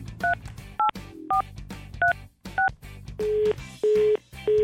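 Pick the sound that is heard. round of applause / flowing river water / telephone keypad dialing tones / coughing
telephone keypad dialing tones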